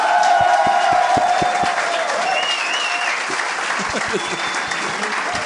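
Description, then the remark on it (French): An audience claps steadily for several seconds as the show's next guest, a singer, is introduced, a dense, loud wash of applause with a few sharper individual claps and faint whistles or cheers mixed in. “Mesdames et messieurs, …, applaudissez-le.”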